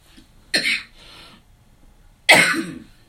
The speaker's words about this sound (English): Excuse me, y'all know I got excited, so I cough.